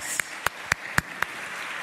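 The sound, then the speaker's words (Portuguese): An audience applauds a group of people standing up, a steady wash of many clapping hands punctuated by five sharp, evenly spaced louder claps in a quick, regular rhythm. “Vamos aplaudir essa turma que está em pé.”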